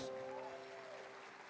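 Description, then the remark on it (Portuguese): A crowd gives a round of applause to Jesus, clapping steadily and continuously, a dense wash of applause at even loudness, with a few sustained voiced tones rising faintly through it in the first second. “Dê um glória a Deus e uma salva de palmas a Jesus.”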